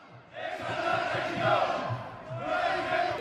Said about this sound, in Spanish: En este acto se oyeron gritos contra la Constitución y contra la nueva ley, con la que los participantes consideran que se está tratando de borrar la historia de España.